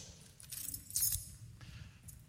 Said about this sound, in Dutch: Sleutels.